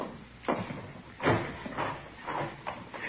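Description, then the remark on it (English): A door being opened, heard as a series of muffled clunks and rattles spread over a few seconds, with a louder thump near the middle and no voices. “Here, I'll get the door.”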